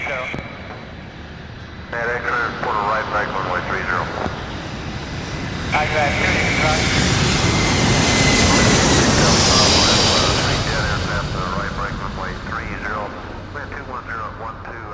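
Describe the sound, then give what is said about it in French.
An airplane roars past as it comes in to land in Istanbul, its broad engine rush swelling to a loud peak midway and then easing off, while voices talk over it. “Le 1er avril, l'avion se pose à Istanbul.”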